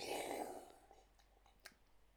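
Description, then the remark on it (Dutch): A quiet sip of water: a short airy slurp at the start, then a few faint mouth clicks and a soft swallow in near silence. “Ja, wacht even, een slokje water.”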